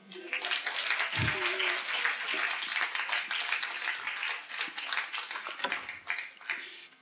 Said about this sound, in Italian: Rifate l'applauso.